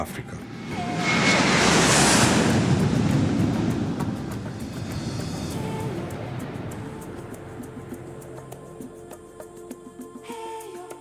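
vehicle, airplane flying

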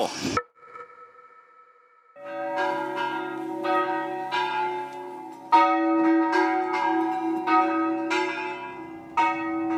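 signal or alarm, church bell ringing

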